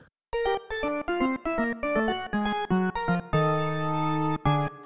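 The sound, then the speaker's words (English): A short musical jingle of about ten punchy, effected synth notes stepping through a quick melody, ending on a long sustained low note and a final short stab. No one speaks. “Um, and we'll we'll just we'll jingle now, and then come back.”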